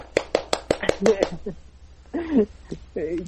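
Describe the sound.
A short burst of hand clapping, about seven quick, sharp claps at a steady rhythm, overlapping with voices that keep talking and continue after the clapping stops.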